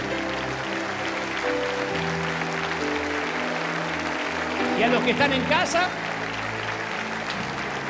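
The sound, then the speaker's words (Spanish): A standing audience applauds the Lord in a steady, dense wash of clapping that runs the whole time, with sustained music tones underneath and a man's voice speaking over it, swelling briefly toward the end. “Vamos, póngase de pie y dan el mayor aplauso de la historia, el mayor aplauso al Señor de señores, al Rey de Reyes.”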